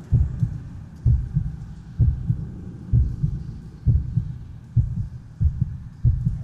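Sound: heartbeat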